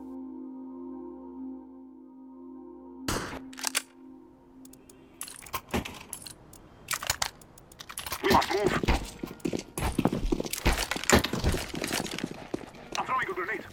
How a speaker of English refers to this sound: these sounds are not from a real conflict, but from the popular first person shooter game Counter Strike